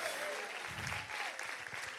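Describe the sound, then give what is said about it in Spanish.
An audience applauds the Lord steadily, a dense wash of many hands clapping, with faint voices calling out underneath. “Alguien diga, alguien que le crea a Dios y le dé un aplauso al Señor y que diga, gloria a Dios.”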